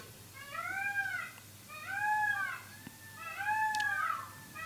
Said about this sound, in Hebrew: חלק בלתי נפרד מהפרקים. הטווסים. כן. לפעמים הם פה באמוק ואי אפשר כאילו זה.